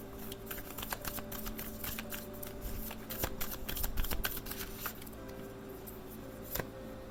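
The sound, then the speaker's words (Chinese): Tarot cards are shuffled with rapid, crisp riffling and flicking, followed by a few sharp snaps as individual cards are drawn and laid down: King of Cups, High Priestess and Ace of Cups. A steady low hum sits underneath, and no one speaks. “来，我要接着帮你们抽牌后，我们要来看哦。”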